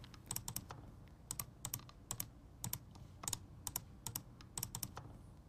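Rapid clicking of a computer mouse, sharp little taps coming in uneven bursts and pairs over a low room hum, with no one speaking.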